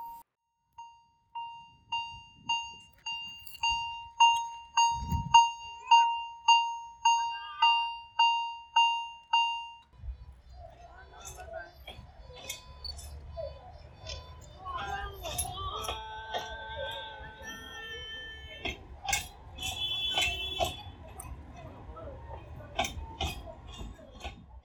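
A steady, evenly paced ringing of a level-crossing bell gives way to an Alishan Forest Railway train, a special limited service, rumbling past by Beimen Station in Chiayi, Taiwan, with loud low rumble, rattling wheels and sharp metallic squeals and clanks.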